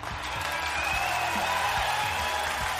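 An audience applauds steadily for a nutritionist guest, a dense, even wash of clapping that stays at a constant, fairly loud level throughout with no voices standing out.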